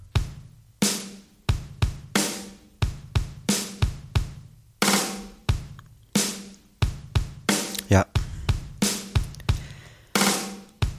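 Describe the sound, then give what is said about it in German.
A short recorded drum pattern of kicks, snares and hi-hats, a song only two bars long, loops back to the start over and over in a steady rhythm, the same two-bar groove repeating clearly with no voices over it. “Ähm, der spielt also jetzt diese zwei Takte immer wieder äh, von vorn.”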